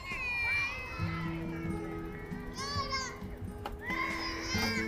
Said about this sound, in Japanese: あ、なんかね、今、こう、公園なんかな、家族キャンピング遊具エリアみたいなところに来て、子供たちがなんか、いっぱい楽しんでるね。